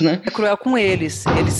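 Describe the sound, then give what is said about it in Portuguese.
Loud, rapid thumps of a female cat banging violently against a closed door, a quick cluster of knocks near the end while a person keeps talking over them. “É, eu fechei a porta e a gata tá batendo violentamente na porta.”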